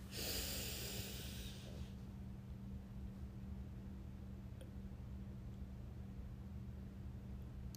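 One long, airy breath rushes out at the start, a deep belly-breathing exhale, then fades into a steady low hum with no further sound and no talking.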